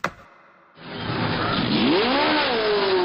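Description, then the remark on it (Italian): Racing car engines roar into life after a brief sharp click at a race start, with cars lined up herringbone-style along a straight and drivers running to jump in, building into a loud, sustained revving with rising and falling engine pitch, continuous. “Le macchine schierate in un rettilineo a spina di pesce, i piloti che corrono saltano dentro e vanno.”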